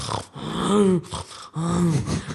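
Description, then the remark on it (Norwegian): A voice imitates snoring or snorting breaths heard coming up a hallway: two drawn-out raspy, wheezy inhale-like sounds with a brief gap between them, fairly loud, with no words spoken. “Og det sleper sånn oppover. Og det er der, og så kommer det noen sånne snorkelyder.”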